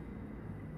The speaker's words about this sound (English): And I'm pretty sure that's a plane. Yeah, that's a plane. Oh, and that's gonna be coming in really low. Dude, who's flying commercial planes in a typhoon?